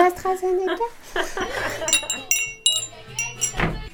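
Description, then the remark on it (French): Dishes clink and clatter as they are handled to be washed, with several bright ringing knocks of glass and crockery in quick succession, while a voice talks in the background. “La vaisselle qu'on a ramenée la semaine dernière. Faut la laver.”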